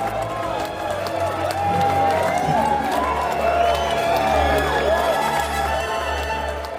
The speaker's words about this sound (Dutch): En ze had gelijk, hè, want het volk applaudisseert. Uit alle monden, honderden, duizenden. Tegelijkertijd klinkt het willen komen, willen komen.